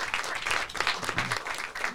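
An audience applauds a guest steadily, many hands clapping in a dense, even patter with no break over the two seconds, with faint voices mixed in underneath.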